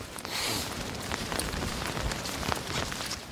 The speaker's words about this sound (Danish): Det har regnet så længe øh, og i så mange timer, at det er lige meget, hvor man stiller sig.